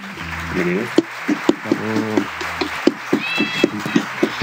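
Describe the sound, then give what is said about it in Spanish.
Sparse, scattered clapping from a small group, welcoming a guitarist, musician and composer to an interview, with sharp claps popping out at irregular intervals over a background of whooping, cheering voices. “pido un fuerte aplauso para, bueno, primero evidentemente sus títulos, que es guitarrista, músico, compositor y docente del ENAM, por decir algunas cosas.”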